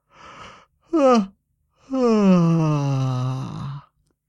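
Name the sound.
yawning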